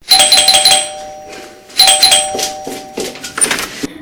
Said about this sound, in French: Ne voyant pas revenir, il sonne à la porte.